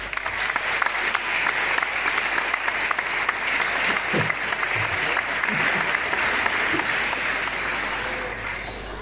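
Sustained applause from a large audience, a dense, steady wash of clapping that stays loud and even for the whole stretch, with faint scattered voices and cheers mixed in.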